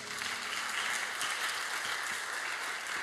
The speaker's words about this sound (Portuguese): Dá uma salva de palmas para Deus.